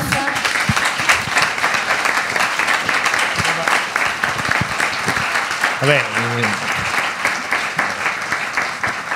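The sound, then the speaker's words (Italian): Sustained audience applause fills the whole stretch, a dense steady patter of many hands clapping, while a man's voice briefly speaks over it near the end. “sto dicendo un applauso per un film che non ho fatto, quindi”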